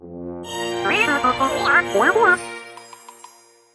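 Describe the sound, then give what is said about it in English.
A person vocally imitates a porg's call, a warbling, squeaky chirp that rises and wobbles for about two seconds, followed by a few faint, light tinkling dings. “Is that a good enough porg sound?”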